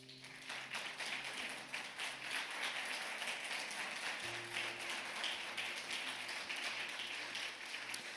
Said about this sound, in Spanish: ¿Cuántos honran a Dios por esa gente con un aplauso?